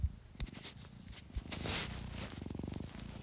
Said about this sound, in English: She's probably not gonna purr because she's kind of annoyed right now. I know she's an annoyed girl. there she goes. She is purring.